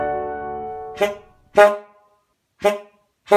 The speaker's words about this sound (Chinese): 这是一九零零年代的汽车喇叭的声音，跟现在的摩托车或者是汽车的喇叭声音很不一样哦。这可是一百多年前的声音耶！